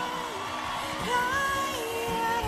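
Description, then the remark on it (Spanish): A live concert crowd at Montreux in 2012 yelling and whooping in a dense, continuous roar, with a few rising cheers standing out above the steady wash of voices. “Y la canción que sale con gente gritando en vivo.”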